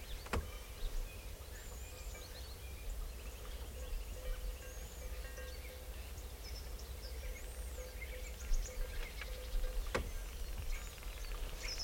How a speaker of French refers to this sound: Des oiseaux. Ah, c'est les étourneaux qui font des bruits comme ça bizarres.